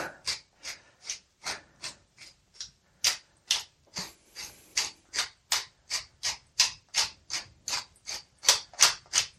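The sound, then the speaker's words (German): A pepper mill grinds pepper steadily in rhythmic, raspy twists, about two crunchy strokes per second, fairly loud, seasoning egg, cream cheese and Parmesan, with no talking. “Und fällt mir gerade noch ein, so ein bisschen Würze können wir ja noch reingeben, indem wir einfach etwas Pfeffer aus der Pfeffermühle dazugeben.”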